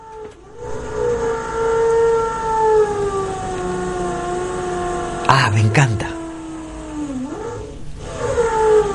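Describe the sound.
A power drill without hammer action, fitted with a large drill bit, whirs steadily for several seconds, its motor whine sliding slightly in pitch and briefly dipping near the end, with a few clunks and a short spoken remark.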